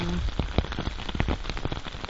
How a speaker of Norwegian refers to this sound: Det kan være regndråpen i en våt skog, som nå.